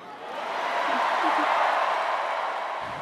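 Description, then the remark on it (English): A large convention crowd cheers and applauds in a loud, steady roar of voices and clapping that swells slightly and holds for about three seconds, with no single speaker standing out. “So the crowd's loving this.”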